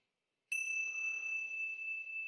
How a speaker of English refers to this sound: focusing on the movement of the sound of the bell through time.